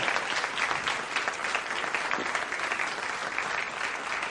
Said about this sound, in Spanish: Un aplauso para ella.